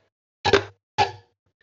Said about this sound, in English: No other thing to cheers with, so I'm gonna hit my mouse. cheers.